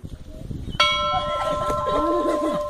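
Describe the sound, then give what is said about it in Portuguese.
A small notification-style bell sound effect strikes once with a bright, clear ding and keeps ringing in a sustained shimmer, while a person talks over it. “Se você quer ouvir mais histórias como estas, de origens de empresas, personagens e muito mais, não deixa de se inscrever aqui no canal e deixar seu sininho.”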